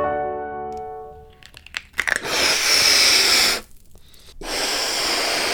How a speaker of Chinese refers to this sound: 哦，这个声音是吹气球的声音。